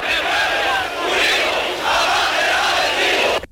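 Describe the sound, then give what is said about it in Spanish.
A large street crowd in Andalusia in 1977 shouts the rhythmic chant "Andalucía, Andalucía" in unison, a loud, dense wall of voices with swelling repeated phrases that continues steadily before cutting off abruptly. “Absolutamente todo está desbordado y en la calle dos gritos, Andalucía, Andalucía.”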